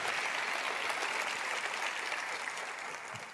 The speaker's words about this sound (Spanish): Dale un fuerte aplauso a Él, por favor. Gracias, Señor.